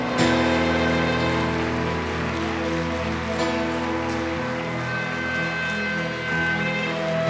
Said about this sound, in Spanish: Y un fuerte aplauso al Señor.